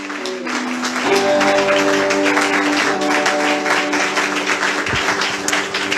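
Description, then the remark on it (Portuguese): An audience applauds the Lord steadily with dense, crackling clapping that holds loud for the whole stretch, while sustained keyboard chords hum underneath. “E se você puder aplaudir ao Senhor, aplauda o Senhor em nome de Jesus.”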